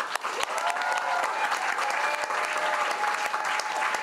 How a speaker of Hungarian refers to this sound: És a nagy tapsot én azt szeretném kérni, hogy azoknak az aktivistáknak, akik a pártok színeiben dolgoztak és segítették ezt a kampányt, és a sikeres jelöltetnek abszolút kiára a nagy taps. Most.